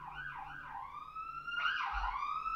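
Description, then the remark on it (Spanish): A police patrol car siren wails in rising and falling sweeps as the car passes, fairly loud, with a quicker yelping swoop partway through and a low rumble of traffic underneath. No one speaks. “Bueno, qué bueno que pasó la patrulla y que ojalá todos estén allá a donde vaya.”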